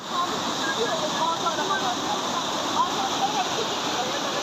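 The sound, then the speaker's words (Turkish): Floodwater from a stream overflowing after a heavy downpour in Kalabaklı village rushes in a steady, loud, churning roar that fills the whole clip without pause, continuous. “Merkeze bağlı Kalabaklı köyünde sağanak yağış nedeniyle dere taştı.”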